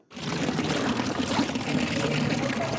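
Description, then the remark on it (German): Water splashes steadily from an old drinking-water fountain near the town hall in Chur, a continuous pouring and plashing that fills the scene without pause. “Noch nicht aus allen Brunnen im Kanton fließt aktuell Wasser, aber der Donalupa-Brunnen in Chur, der plätschert schon fröhlich vor sich hin. Das ist ein alter Trinkwasserbrunnen in der Nähe vom Rathaus.”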